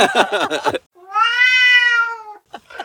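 A cat gives a quick run of chattering cries, then a thin, high, drawn-out meow lasting over a second, followed by a short final squeak. It sounds clear, with no talking.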